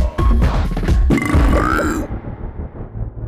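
A single long, loud burp, deep, rumbling and croaking for about three seconds before trailing off into a low gurgle, with no talking.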